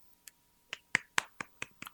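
Hand clapping: a single soft clap, a pause, then about seven sharp, fairly loud claps in a steady, quick rhythm, with no voices.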